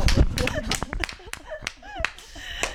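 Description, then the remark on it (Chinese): Someone claps about seven or eight times in a loose, uneven rhythm, each clap a sharp crisp smack, while voices chatter and laugh softly underneath. “忍不住鼓掌。”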